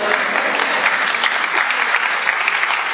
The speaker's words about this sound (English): And this was just going to be a 15 minute sermon, but if, if this brother is the only one going to be clapping, we're going to be preaching a long time until we get everybody involved in what we're doing.